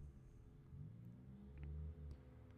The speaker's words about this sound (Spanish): De hecho, en este momento se escucha un helicóptero.